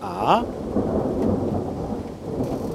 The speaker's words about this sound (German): Äh, ja, aber das nasse Element ist nun mal nicht so verträglich, wenn es blitzt und donnert. Ja. Mal sehen, vielleicht kriegen wir ja noch live einen drauf. So ein Donner.